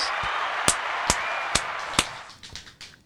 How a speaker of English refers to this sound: Don't I have like an applaud thing here? Oh, wrong one. Which one is it